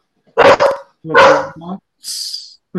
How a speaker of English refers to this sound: oh, I hear a puppy. That's that's, that's the dog saying hello.